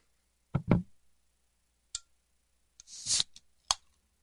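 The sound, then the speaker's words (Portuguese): A Pepsi or Coca-Cola soda can is opened: a couple of metallic clicks and taps, then a short sharp hiss of escaping fizz followed by a final click, with no one talking. “Vamos sentir aquele barulhinho gostoso da Pepsi, da Coca abrindo, né?”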